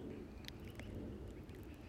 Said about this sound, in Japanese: 今日いい感じで青い空でねあの鳥がピーピー鳴いてるわけですよ